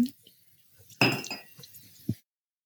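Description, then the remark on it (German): Glasses clink together in a toast, a bright ringing strike followed by a few lighter touches and a soft closing clink, with no talking. “auch wenn sie keine Juristin ist, können wir auch auf Coco Chanel nochmal anstoßen”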